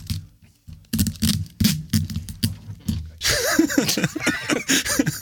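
Adhesive tape is pulled off the roll in a long, rasping, squealing rip as a piece of tape is fetched and applied, following a few seconds of people talking.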